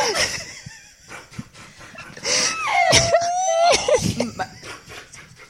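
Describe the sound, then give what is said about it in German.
Several people in an apartment building hallway make overlapping squeaky, high-pitched calls and hissy kissing noises, the kind used to coax a cat over, with one drawn-out whistly tone rising above the rest. “Okay, können alle mal aufhören, Katzenanlockgeräusche zu machen.”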